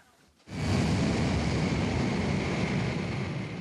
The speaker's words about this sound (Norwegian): Vi er ved Kennedy romfartssenter i Florida. Det er tidlig tirsdag morgen. Flystripen ligger midt i det grønne sumplandskapet. To maskiner tar av i den fuktige luften samtidig. En ombygd jumbojet med romfergen Discovery på ryggen